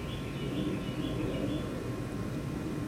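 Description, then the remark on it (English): Faint birds chirping outdoors over a steady wash of ambient noise, with soft, continuous high calls and no one talking. “I hope y'all can hear the birds chirping in the background.”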